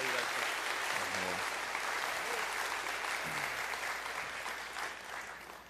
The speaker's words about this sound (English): give him a round of applause take that.